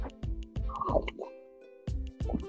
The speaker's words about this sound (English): Expect like extreme slurping noises.